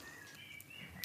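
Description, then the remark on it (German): Birds in Zehlendorf chirp softly, thin high whistling notes drifting over a steady outdoor hush, with a brief brighter chirp near the end. “ihr hört die Zehlendorfer Vögel im Hintergrund”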